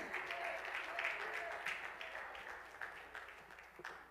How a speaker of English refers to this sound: Oh, let's clap our hands and praise him this morning.